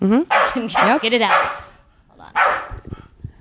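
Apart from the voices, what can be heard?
dog barking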